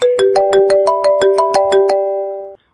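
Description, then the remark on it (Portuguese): A telephone rings with a loud electronic ringtone: a quick run of evenly spaced beeps over sustained tones, lasting a couple of seconds before cutting off abruptly. No one speaks. “Isso é hora de telefone tocar, bicho.”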